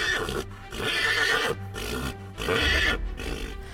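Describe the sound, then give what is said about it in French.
Horses neigh loudly, several shrill, wavering whinnies in quick succession with brief pauses between them and no voices. “Impossible pour le conducteur de faire repartir ses chevaux.”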